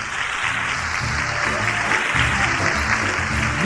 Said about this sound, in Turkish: Onlara da kocaman alkışlayalım.